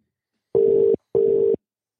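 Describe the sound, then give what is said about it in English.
Two steady electronic ringback tones of an outgoing phone call to the caller's wife, each lasting about half a second with a short gap between, clear with silence around them. “It's ringing.”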